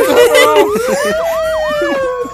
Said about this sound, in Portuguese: Nessa hora começou a soar sirene na minha cabeça, Nossa, tá ligado?